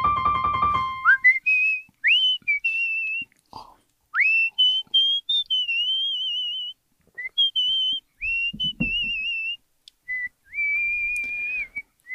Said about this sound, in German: Darf ich einen Kritikpunkt an deinem Pfeifen äußern? Das ist sauleise.